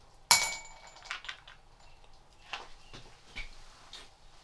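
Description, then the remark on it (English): A hazelnut drops into a glass bowl with a sharp, ringing clink, then rattles and skitters in a few softer taps as it settles. No voices. “Hazelnut glass bowl.”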